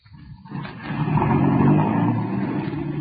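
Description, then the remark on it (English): A car engine starts low, then revs up into a loud, steady roar as the vehicle pulls off, rumbling on with no voices. “That car, it sounded like.”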